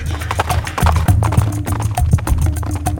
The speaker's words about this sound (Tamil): வந்தியத்தேவன் பிறகு அங்கு ஒரு கணம் கூட நிற்கவில்லை குதிரை மீது தாவியேறி விரைவாக விட்டுக்கொண்டு கடம்பூரை நோக்கி சென்றான்